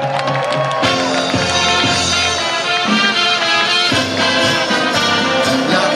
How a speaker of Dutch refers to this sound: Ik wil het podium even vrij vragen voor deze zes kanjes. En geef ze een fantastisch applaus.